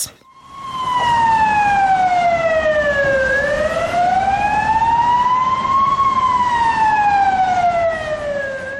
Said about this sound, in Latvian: jā, tās bija kaut kādas sirēnas, vai ne? Mm -hmm. Kas tās bija pa sirēnām? Ugunsdzēsēji, glābēji, vai ne?